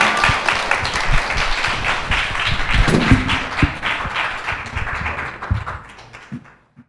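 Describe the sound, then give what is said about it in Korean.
An audience applauds steadily at the end of a short film screening and audience talk, applauding the director and guest. The applause is a dense patter of many hands clapping at once, holding for several seconds before thinning out and fading near the end. Nobody speaks. “마지막으로 이제 나와주신 감독님하고 성목님한테 박수 드리는 걸로 마무리하도록 하겠습니다.”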